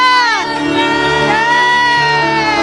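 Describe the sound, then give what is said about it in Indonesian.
An audience praising God shouts hallelujah together, a loud, sustained roar of many overlapping voices with rising and falling cries layered through it, filling the whole moment without a break. “Kami rindu untuk memberikan pujian lebih lagi lebih dahsyat lagi buat semua hormat kemuliaan dan pujian hanya bagi namamu Yesus kami yang rindu memuliakan Tuhan lebih lagi sorakan haleluya”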